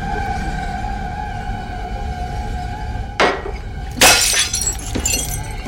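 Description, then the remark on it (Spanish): A glass tumbler of water falls from a woman's hand in a kitchen and shatters loudly into many pieces, with an initial crash followed by a second burst of scattering shards, over a steady low droning background. “le cae el vaso de cristal y se rompe, haciéndose mil pedazos.”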